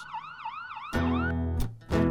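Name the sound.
police car siren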